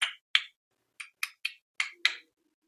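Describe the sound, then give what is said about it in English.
Seven sharp, dry clicks sound alone in an uneven rhythm, each one crisp and brief, with a faint low hum creeping in near the end. “They obviously fixated their flashlights on the hole in the roof, and they focused on the panel, um, and then they honed in on the strange clicking noises, like again, like”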